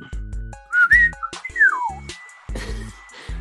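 A person whistles close by: a quick rising note, then a longer sliding whistle that falls in pitch, both sharp and clear over a steady thumping beat.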